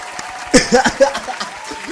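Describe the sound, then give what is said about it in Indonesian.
A short burst of clapping from a few people, applauding themselves all, starts after a brief pause, mixed with light laughter and voices, then thins out into scattered claps. “Weh, tepuk tangan untuk kita semua.”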